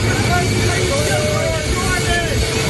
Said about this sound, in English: Reporters shouted over the roar of the engines to see whether he was still going to include a stop in Jordan after his visit to Israel.